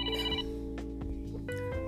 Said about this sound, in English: Please do not mind that alarm. That was an alarm for me to start my podcast.